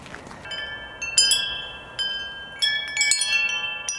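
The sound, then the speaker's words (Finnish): Metallic wind chimes ring, struck in irregular clusters so bright overlapping tones pile up and linger in a shimmering wash. No one speaks. “Sä tykkäät tuulikelloista?”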